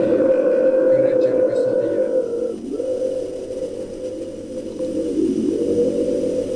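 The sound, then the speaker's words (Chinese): A steady, whooshing drone from a wind drum imitating a gentle breeze, holding a low hum with two soft dips in pitch as the sound eases and swells again. “轻柔的风，轻柔的风。”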